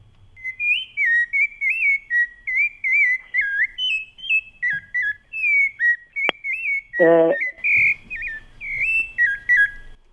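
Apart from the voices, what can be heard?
sabiá thrush singing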